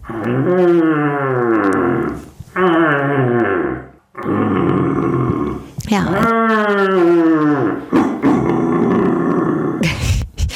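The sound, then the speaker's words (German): A man imitates a rutting stag to call deer, with loud, drawn-out roaring bellows, several in a row with short breaks, followed by a brief word and a laugh. “und ich habe mir eine Sendung mit ihnen angehört, wo sie etwas ganz Spannendes tun, nämlich sie rufen Hirsche und das klingt dann so.”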